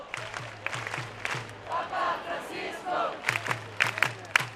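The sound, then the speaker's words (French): A crowd of young people in Lisbon shouts and cheers with scattered sharp claps as Pope Francis tours Eduardo VII Park in his Popemobile on Thursday, 3 August; rhythmic low thumps repeat in bursts beneath the noisy, continuous roar of voices. “Les jeunes crient, applaudissent, pleurent.”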